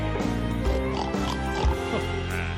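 Loud pig-like oinking and snorting grunts run together for a couple of seconds, sounding like a person imitating a pig rather than a real animal.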